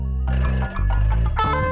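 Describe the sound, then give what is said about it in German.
A telephone rings with a bright, steady electronic trill, loud, pulsing in short repeated bursts with no one speaking. “Das Klingeln des Telefons verwandelt sich in ihm in eine liebliche Symphonie.”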